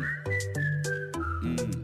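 A short whistled tune moves in stepped notes over a steady, low musical backing, with rhythmic percussive ticks marking the beat. Moderately loud, no talking.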